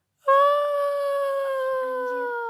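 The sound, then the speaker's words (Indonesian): A voice imitates a long, drawn-out male scream: one loud, steady, high-pitched wail that starts abruptly and holds with barely any drop in pitch until the end. “gitu kan udah tuh balik terus nggak jauh dari tempat itu terus tiba-tiba itu jelas banget ada suara teriakan kayak”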